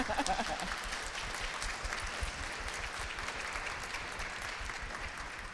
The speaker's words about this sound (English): Yeah, and thank you. Yes, a big round of applause.